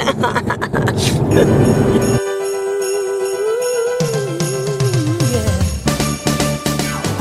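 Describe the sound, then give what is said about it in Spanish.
A short, upbeat intro theme jingle plays loudly with no talking: a bright melody with a gliding lead line over steady rhythmic beats, lasting several seconds. “Vale, voy a meter la cabecera, si te parece.”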